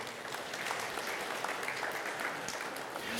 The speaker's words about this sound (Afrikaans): Geef hulle 'n lekker hande klap toe.